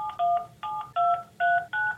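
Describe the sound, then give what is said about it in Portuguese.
A phone number from a newspaper classified job advertisement being dialed: five crisp DTMF keypad tones in quick, evenly spaced succession, each a short steady dual-pitch beep, clear with no voices. “Ela começou a anotar os números de telefone dos anúncios. Quando eu comecei a fazer essas ligações”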